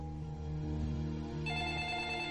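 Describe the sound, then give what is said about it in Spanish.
A telephone rings with a steady electronic tone, its pitch shifting partway through, heard clearly at moderate volume over a low background hum, with no one speaking, in a film scene where Dr. Bales sits in a lounge with his secretary. “Prema coge el teléfono.”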